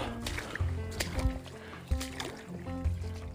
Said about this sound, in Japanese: 聞こえるこの音ジャボジャボだよ いやひどいわぐっちょぐちょ